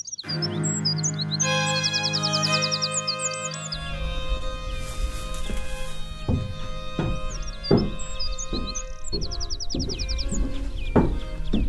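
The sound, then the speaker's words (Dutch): Common redshank alarm calls ring out as sharp, rapid bursts of piping notes, repeated several times over a steady low background rumble, with other scattered bird chirps in the open air, at the Gruto bird hide in the Uitkijkse polder, where the redshank has a nest. “Dat was alarm van de tuurluur.”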